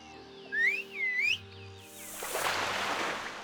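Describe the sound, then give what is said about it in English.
A person whistles a short call of two rising, sliding notes, clear, in an underground cave lair beside a pool of still water, calling up a giant python from the water, followed by a soft, steady hissing wash of sound with no talking. “A giant python arose from the water, responding to Kwaku's whistle.”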